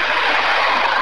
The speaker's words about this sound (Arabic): في مكان عندك صوت عربيات سيارات بس تفضل صوتك مش واضح آه، عندي عربيات اه والله الصوت صوت مزعج جدا